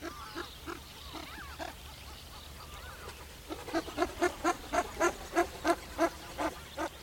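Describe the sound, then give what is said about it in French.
A red-crested pochard, a diving duck with a russet head, calls in a steady run of short, nasal, wheezy notes, fairly quiet at first, then growing louder and more insistent in a rapid rhythmic series. “Du coup, j'écris net rousse, qui est une des espèces de canard plongeur qui a la tête rousse.”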